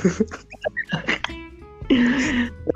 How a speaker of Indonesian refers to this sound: iya parah demi allah ini gue aja lagi batuk anjir